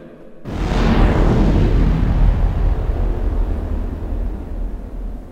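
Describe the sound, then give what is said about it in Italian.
A sudden, loud crack of thunder bursts out after a brief silence, then rolls on as a deep, heavy rumble that fades only slightly over several seconds. No one speaks. “Ecco, qui c'era un momento catartico, un tuono e poi cominciava la serata o anzi direi il pomeriggio forse, no?”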